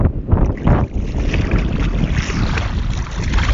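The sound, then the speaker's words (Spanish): Someone wading into cold water, with steady sloshing and splashing and gusts of wind rumbling over the microphone; no one speaks. “cuando estoy aquí mm, eh, eh, dentro intentando entrar dentro del agua, ¿vale?”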